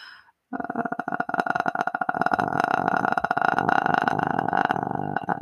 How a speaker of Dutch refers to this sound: wat je met kikkeren doet, is je jaagt het minste beetje lucht langs je gesloten stembanden, waardoor de eerste klank ontstaat